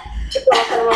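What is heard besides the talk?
coughing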